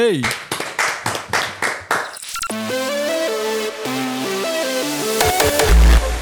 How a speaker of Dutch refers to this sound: Even zonder rappen, maak applaus voor ….